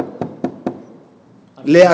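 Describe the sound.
Three quick, evenly spaced knocks on a door ring out close by, followed after a short pause by a man beginning to speak.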